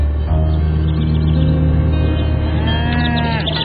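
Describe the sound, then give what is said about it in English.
Cows moo in long, low, drawn-out calls that overlap one another, loud, with a higher, rising bellow near the end and a steady farmyard background throughout. “Mommy, look! Cows! Can we go see the cows?”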